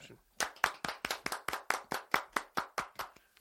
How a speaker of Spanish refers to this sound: No sé si lo habrán recogido el micrófono, pero hemos aplaudido.